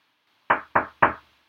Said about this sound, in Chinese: 过了一会儿，终于到奶奶家了。小红帽敲敲门